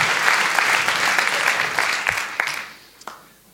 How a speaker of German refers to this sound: Vielen Dank für diesen Applaus.